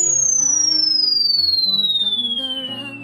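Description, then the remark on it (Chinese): A five-leaf-clover firework's high whistle glides steadily downward in pitch for about three seconds over a soft, sustained musical backing, with no voices and no clear bang. “哇，是五叶草烟花，你是怎么做到的？”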